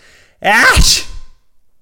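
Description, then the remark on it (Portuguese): A single loud, shouted sneeze, forceful, with a rising vocal wind-up that bursts into a harsh explosive blast and then trails off, heard on its own. “Não, estou a dizer mesmo aquele espirro que vocês gritam antes, sabem?”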